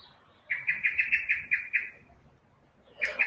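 A bird sings a quick series of about eight bright, evenly spaced chirps, then pauses before another short burst of song begins; clear against a quiet background.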